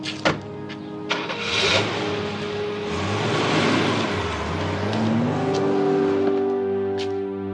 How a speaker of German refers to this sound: Carlos setzte sich in seinen Wagen und fuhr hinter Ramona her.